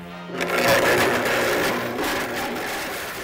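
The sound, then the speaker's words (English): A blender roars at high power, blending cubic zirconia imitation diamonds for Will It Blend?, its motor grinding and rattling the hard pieces inside the jar in a loud, continuous churn with gritty crackling throughout. “We are going to blend cubic zirconia imitation diamonds.”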